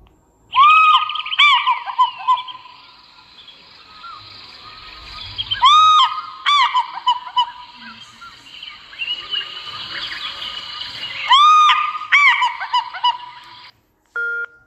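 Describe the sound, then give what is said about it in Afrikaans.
An African fish eagle call, played on a sound reader by pressing the picture of the fish eagle, sounds in three loud bursts of ringing, high yelping notes, each a quick descending series, with fainter chatter between them and a brief click at the end. “Wat jy doen is jy vat jou klankleser, jy druk op die prentjie van die visarend en dan klink hy so.”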